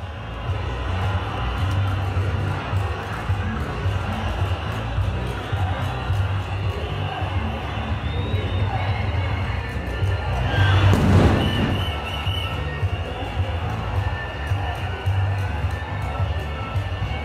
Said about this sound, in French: Petit aperçu sonore de la place Bolivar à Bogota, le 28 avril, totalement pleine, colorée et bien ambiancée.